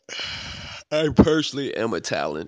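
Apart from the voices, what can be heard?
yawn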